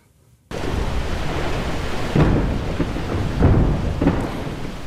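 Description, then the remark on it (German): A loud, sustained rumbling roar sets in abruptly, with sharp cracking bursts and booms breaking through at intervals as an ice shelf breaks off in Antarctica, with no voices. “Was hier klingt wie Feuerwerk, ist das Geräusch, wenn in der Antarktis Schelfeis abbricht.”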